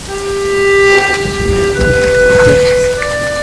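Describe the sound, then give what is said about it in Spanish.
Steady, loud rain pours down outside in very cold weather, continuously, a dense wash of noise with a few sustained tones ringing faintly over it and a low rumble underneath. “Vete bien abrigadito porque está haciendo mucho frío y está lloviendo afuera.”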